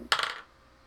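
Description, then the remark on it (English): A quick clatter of dice tumbling across a table, a burst of bright rattling clicks lasting under half a second before fading to quiet, the dice landing on a three, a five and an eight. “Their dice were also on a journey.”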